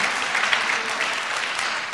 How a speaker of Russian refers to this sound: Даже дай хорошие аплодисменты еще раз.